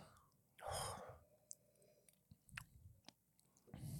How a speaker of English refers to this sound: All right, first we'll do a uh, sip and then a bite.